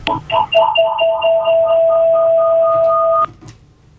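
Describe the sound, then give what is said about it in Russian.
A radio receiver emits a steady electronic signal tone when its sound is switched off, fairly loud, with a brief fluttering start, holding for about three seconds before cutting off abruptly. No one speaks. “Там, это радиоприемник. Если выключается звук, да. то так, такой получается сигнал.”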